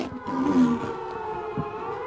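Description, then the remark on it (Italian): A nuclear alarm siren blares for about two seconds, a loud, steady, droning wail thick with buzzy harmonics and little change in pitch, with no one speaking over it. “Questo è l'allarme nucleare.”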